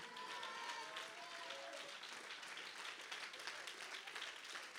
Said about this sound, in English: Nobody needs to tell you to clap your hands because the news that Jesus is alive is the best thing that's ever happened.